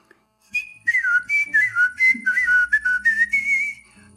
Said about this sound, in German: Und jetzt kommt das palatale Pfeifen.